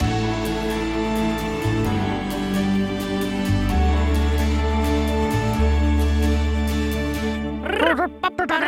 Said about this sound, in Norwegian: Ja, nå var dere nok spent på denne nye vignetten, som er en mai-versjon av vignetten. Det høres nesten ut som et barneprogram hvor uh, den største oppgaven er da å skremme barna.